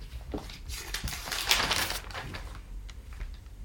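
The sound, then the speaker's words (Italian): Newspaper pages rustle and crinkle as a newspaper is picked up and turned to page 6, a string of crisp, papery crackles peaking in a louder flurry midway, then softer shuffling. No one speaks. “e a proposito della Sardegna possiamo prendere il giornale che a pagina eh,”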